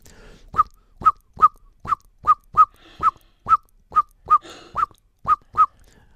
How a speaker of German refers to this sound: Nun sehen die Amseleltern eine Katze, die ist vielleicht noch weit weg, ist ungefährlich, aber dann kommt der Bodenfeind Alarmruf in leichter Form, kennt auch jeder.